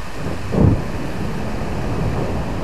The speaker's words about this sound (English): there are literally blocks of ice falling into the ocean. This is called calving. If you're listening to this podcast through headphones, you'll be able to hear it better because it's a low, subtle rumble in the recording.